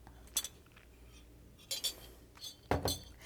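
Ice clinks against a glass several times in an irregular sequence of bright, short chinks, ending in a louder, rattling cluster as someone drinks an iced latte. No talking.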